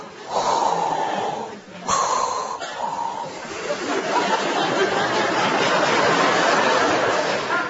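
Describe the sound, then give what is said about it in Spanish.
A voice imitates loud, heavy mechanical breathing, like air hissing through a helmet respirator, in slow drawn-out inhales and exhales, with no words spoken. “me estoy escuchando la respiración y digo, macho, le paso al Darth”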